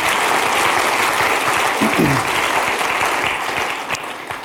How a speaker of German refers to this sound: Gebt ihnen doch einen Applaus nochmal. Merci vielmals.